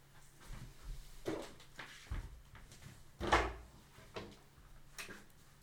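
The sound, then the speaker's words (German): A door is eased shut quietly, with a few soft bumps and light handling noises leading to a gentle thud near the middle, fairly muted, with no talking. “Und elfengleich schloss er die Tür.”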